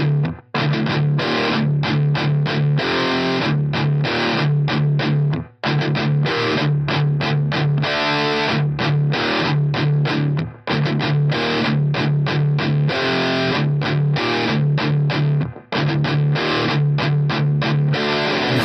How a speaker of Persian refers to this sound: عموما گیتار رو یه مقدار بمتر کوک میکنیم که یک صدای خاص برنده ای داره یک صدای با اتک خیلی زیادی داره و بهش میگیم چاک کردن الان من خودم با گیتار یکی دو تا اینجوری آکورد براتون به صورت چاگینگ میزنم مطمئنا متوجه منظورم میشید چون حتما شنیدید توی های متال